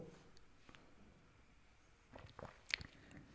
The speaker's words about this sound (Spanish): Ya, déjame tomar un poquito de agua.